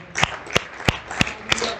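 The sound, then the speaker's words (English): An audience clapping hands together in a steady rhythm, six sharp, loud claps evenly spaced about a third of a second apart over a soft wash of crowd noise. No talking. “Would you clap your hands one more time for the Lord today?”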